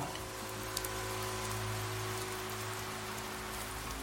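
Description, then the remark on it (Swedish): Steady, damp rain blowing in from the side patters down across a surface, a dense continuous hiss with scattered droplet ticks, even throughout, with a low hum underneath and no voices. “Det börjar regna, sådär på göteborgskt vis. Ett fuktigt regn som kommer från sidan.”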